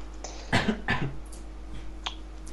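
A man coughs twice in quick succession, two short harsh bursts close to the listener, followed by quieter faint clicks and rustling against a low steady hum.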